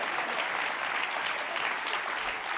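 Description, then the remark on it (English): An audience claps steadily for a few seconds, a dense, even wash of many hands with no single claps standing out and no talking over it. “You can clap, commit though.”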